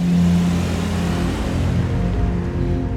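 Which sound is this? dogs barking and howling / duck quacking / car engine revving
car engine revving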